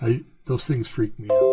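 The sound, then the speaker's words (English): A short electronic email notification chime with a couple of steady pitched tones sounds near the end, overlapping a person who keeps talking; the email had not been turned off. “Um, anyway, uh, sorry for that noise. I didn't turn my email off.”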